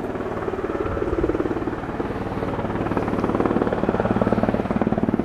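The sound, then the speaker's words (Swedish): A helicopter flies in during a rescue manoeuvre demonstration, its rotor blades producing a steady, rapid chopping pulse that stays loud and constant throughout, with no voices over it. “Här var en eh, räddningsmanöver, en helikopter kom flygande.”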